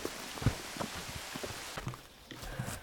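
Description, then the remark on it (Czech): Rain starting to come down harder in a valley, a steady soft hiss dotted with irregular drop impacts tapping on a surface, fairly quiet and with no voices. “Je to déšť, jako docela začíná lejt.”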